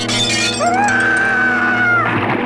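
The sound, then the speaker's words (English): Window glass shatters in a dense, loud crash, with a high ringing tone that rises and then holds steady for over a second amid a busy, layered background, as a man goes out of a tower window with an alien about to shoot him, in a TV show. “he gets thrown out the window, which is so brutal for this show.”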